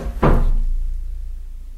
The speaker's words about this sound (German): Auf einmal knallte die Tür hinter ihm zu und er war alleine im, im Dunkeln mit Spinnen und vielleicht auch einem Gespenst.